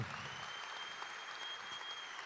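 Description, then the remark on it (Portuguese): A church audience, wearing masks, applauds steadily during a morning service, a dense, even wash of many hands clapping at a constant loudness for the whole stretch, with no voices over it. “se você der um sorriso, e mesmo por debaixo da, da máscara, você aplaudir, dizer um amém, você vai me encorajar e daqui a pouquinho eu já estou relaxado já.”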